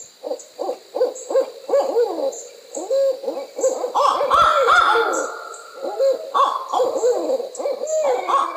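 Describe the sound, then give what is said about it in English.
A loud, frantic chorus of owl calls, rapid hoots and wild cackling, monkey-like cries rising to a raucous peak midway, over a steady high drone of night insects. “I remember a time in college that they were doing their monkey calling business”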